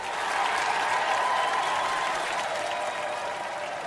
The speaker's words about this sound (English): would you believe it, that crowd of sorry souls and goons actually applauded.